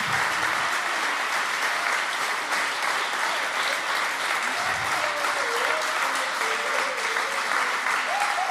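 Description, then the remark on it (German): Steady, dense applause at an ICF Hamburg church service for the church's founding leaders, many hands clapping at an even level with no pauses, while a faint voice-like tone drifts faintly underneath near the end. “So, Danke für den Applaus.”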